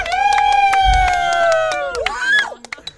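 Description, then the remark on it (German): A small crowd cheers loudly for the cameraman, with a long sustained whoop and scattered hand claps that taper off after a couple of seconds into a few isolated claps. “So, wer ist der Einer, Dichteste, ein Dichteste Applaus hier?”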